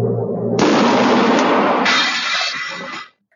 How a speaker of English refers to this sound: this is the shot out of a cannon section